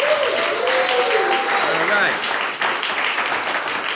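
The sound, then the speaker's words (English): A large crowd applauds loudly and steadily for several seconds, dense clapping filling the space, with a few whistles and scattered cheering voices rising above it. “I just want y'all to give it up again for these guys and their hard work.”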